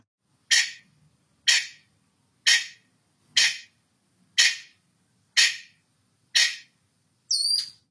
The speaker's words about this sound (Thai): วันนี้สัตว์ตัวที่จะมาพาเราไปตะลุยแดนแฟนตาซีก็คือ ไก่ฟ้าใช่ไหมครับ ใช่แล้วค่ะอ้าวแล้วถ้าอย่างนั้นเด็กๆ จะได้รู้ไหมล่ะ ว่าเสียงไก่ฟ้าเนี่ยมันเป็นยังไงปะเอี้ยง ต้องได้รู้สิคะ ไปฟังกันเลยค่ะ